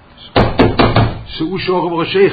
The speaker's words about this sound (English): The boyolim is knocking on the door.